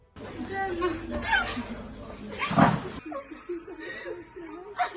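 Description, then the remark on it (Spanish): Several people cry and sob with emotion, voices wavering and overlapping, with sharp bursts of wailing amid broken, tearful vocalizing, as freed hostages embrace their families in Israel or Palestinian mothers embrace their children. “Es el llanto de los rehenes liberados abrazando a sus familiares en Israel o el de las madres palestinas abrazando a sus hijos.”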